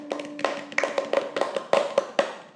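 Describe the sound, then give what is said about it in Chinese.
A short burst of light applause: a few people clapping in a loose, uneven rhythm, about ten sharp claps over a couple of seconds, with a faint steady hum underneath and no voices. “哦， 哦掌声！”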